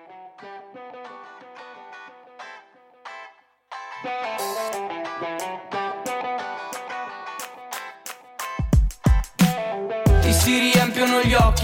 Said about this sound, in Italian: Ma prima di lasciarvi alle notizie vi facciamo sentire il primo brano